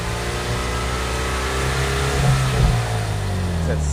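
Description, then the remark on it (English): A car engine drones at a low, steady pitch, then revs up briefly with a rising roar before settling back, fairly loud throughout. “Say, what if your car could go from sounding like this”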